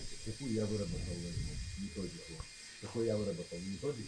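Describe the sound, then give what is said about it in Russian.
An angle grinder saws something in an office, with a steady, high-pitched hissing whine that holds unbroken for the whole clip, sitting beneath louder voices talking over it. “Болгарка что-то пилят.”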